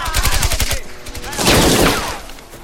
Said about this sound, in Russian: Скинув маскировочный халат, раскладывает перед собой гранаты и три автомата ППШ. Автоматная очередь старшины оставляет нескольких немцев, лежащих на земле.